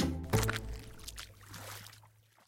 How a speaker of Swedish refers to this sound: Ehm, jag jag satte ner foten i den här pumpgropen och stöveln vart full med vatten.